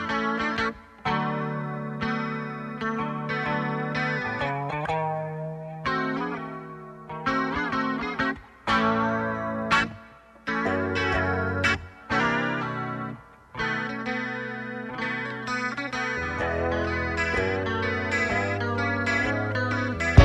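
A late-1970s Brazilian song with a female vocal over a full, effect-laden band, playing loud and continuous with a few brief dips and breaks in the dense arrangement.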